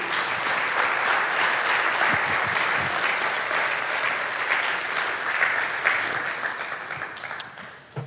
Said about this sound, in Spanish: Tenemos poder en la sangre de Cristo Jesús. Puede darle un fuerte aplauso a nuestro Dios.